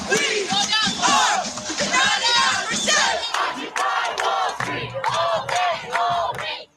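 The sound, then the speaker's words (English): A large crowd of protesters in the streets, during the Occupy movement protests, shouts and roars together in loud, sustained waves of overlapping voices, with rhythmic bursts like chanted slogans rising and falling throughout. “Public outrage poured into the streets.”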